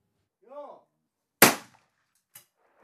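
A brief shouted call, then a single loud shotgun blast from a grouse hunter shooting at a clay pigeon on a shooting range in Vadsø, with a sharp crack and quick decaying tail, followed by a fainter short burst about a second later.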